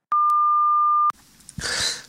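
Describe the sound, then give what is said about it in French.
A single steady electronic tone of about one second, loud and pure, cuts off sharply and gives way to faint rustling and breathy noise: an answering machine beep before a message is recorded. “vous êtes bien sur le répondeur du Opération Bikini Vous pourrez enregistrer votre message juste après le bip sonore”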